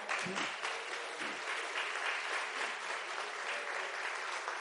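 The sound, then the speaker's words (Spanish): Steady applause from a crowd, given to the Lord, fills the whole stretch, a dense, even wash of many hands clapping at a constant loud level with no voices standing out. “Haz un aplauso al Señor.”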